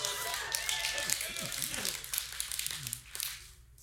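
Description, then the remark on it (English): A crowd claps in church, a dense patter of hand claps over several seconds with voices mixed in underneath, tapering off toward the end. “Those people that are clapping, they used to be really miserable.”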